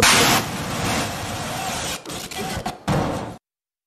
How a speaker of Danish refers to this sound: man kan høre, at lyden den også sådan nærmest øh, overstyrer fuldstændig, mm. fordi lyden den er så, øh, så voldsom. Kameraet fangede øh, eksplosionen øh, i den her video,